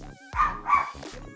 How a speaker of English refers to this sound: that's my dog Caesar, y'all. Caesar time. Caesar time. Caesar time.